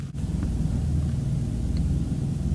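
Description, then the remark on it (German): A steady, loud rushing drone with heavy low-end rumble, continuous and unchanging: the synthetic stationary sound of an electric car standing still in Sport Plus drive mode, with no talking over it. “Auf Sport Plus wird es schon heftiger. Das ist ein richtig lautes Rauschen.”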